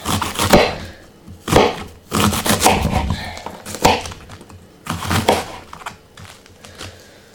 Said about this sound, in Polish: Wrzucam znowu kapustę do tej miski z zupkami, z makaronem. To dokroję troszeczkę.